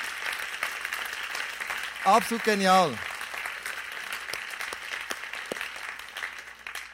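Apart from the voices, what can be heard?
audience applause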